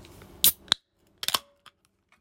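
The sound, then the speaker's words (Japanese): A can of Orion beer being cracked open: a sharp metallic snap, then a quick hiss-and-click sequence of the tab, followed by a couple of faint clicks, with no talking. “なんで、缶ビール、オリオンビール開けろとまず聞いてください。”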